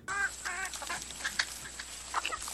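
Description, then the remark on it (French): Hens from a battery farm in the Somme cluck and squawk over a steady background hum as they are being freed: two louder drawn-out calls up front, then quicker scattered clucks from a crowded flock, with no one speaking. “Le rappeur … a libéré illégalement des poules d'un élevage en batterie dans la Somme.”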